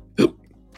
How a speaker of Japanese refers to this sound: あ、しゃっくりした。